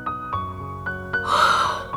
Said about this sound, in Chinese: 熊妈妈打了一个哈欠。